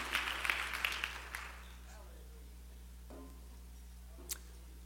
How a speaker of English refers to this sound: Let's put our Bibles down, clap our hands to the Lord one more time. Thank Him for His presence, and you may be seated.